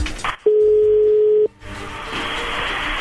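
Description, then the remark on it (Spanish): A call being placed on a telephone: a single steady, mid-pitched tone holds for about a second, then gives way to soft line hiss and faint background noise. No one speaks. “Bien, entonces ahí le va a marcar.”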